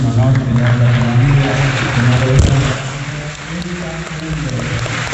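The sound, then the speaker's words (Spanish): A theater audience breaks into big, sustained applause, a dense wash of clapping with cheering voices mixed in, staying loud and steady for the whole stretch. “Así que quiero pedir un enorme aplauso para mí”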